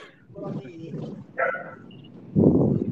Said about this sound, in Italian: i cani come stanno? Che mi sembrano vivaci.